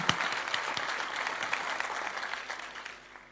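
An audience applauds in a dense, steady wash of clapping that holds for a few seconds, with sharp individual claps standing out before it gradually tapers off.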